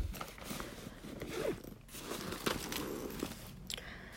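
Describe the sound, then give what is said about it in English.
A Trapper Keeper binder being opened, with a scratchy, ripping tear like a flap pulling loose, followed by crinkling and rustling of plastic and paper. Moderately loud, with no talking. “Okay, now I'm gonna actually open the trapper part of it. and not the file folder.”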